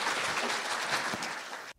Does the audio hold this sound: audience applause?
yes